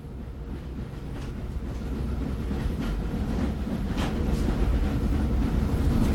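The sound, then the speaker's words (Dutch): Steady low rumble inside a moving passenger train bound for Antwerpen Centraal via Lier and Berchem, with rhythmic rail clatter and faint metallic clicks over the wheels, continuous and fairly loud throughout, no voices. “Dus trein heeft nog altijd in de Lier, Antwerpen, Berchem en tenslotte Antwerpen Centraal als eindstation.”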